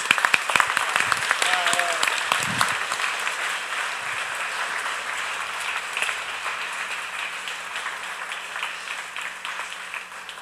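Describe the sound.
An audience applauds the two members of the worship team in a dense, steady wash of clapping that holds for about ten seconds, with a brief voice or cheer rising over it near the start.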